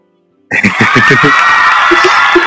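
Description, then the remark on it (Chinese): After a short silence, a burst of crowd applause and cheering welcoming two guests to a World Book Day discussion starts abruptly and holds steady and loud, with a few rhythmic whooping shouts rising over the clapping at the start. “那先给大，先给他一点掌声，”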